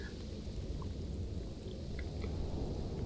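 Steady rain pours down with a low, rumbling wind roaring underneath, a dense continuous wash of sound at a moderate level with no voices.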